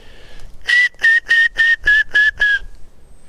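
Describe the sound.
A person whistles an imitation of a black woodpecker call: seven evenly spaced, steady notes at the same pitch in a brisk, regular rhythm, fairly loud with no talking.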